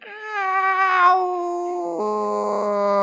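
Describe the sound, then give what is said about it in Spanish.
A cat in pain lets out one long, anguished yowl at night, loud, holding a wavering wail for about three seconds before dropping abruptly to a lower, droning pitch. No one speaks. “Yo no sabía si era un bebé, un gato que estaban tirando los vecinos. No, no entendía nada. Y era un gato.”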